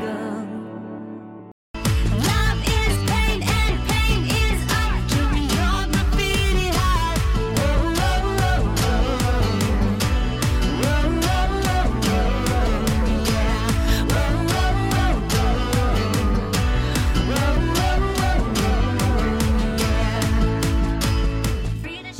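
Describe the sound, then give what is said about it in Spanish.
A pop song demo kicks in after a brief pause: piano chords over a steady programmed beat, with a raw singing voice on top, loud and continuous throughout. “Es piano y una programación en el estribillo que después tiene mucha más producción en la versión del álbum.”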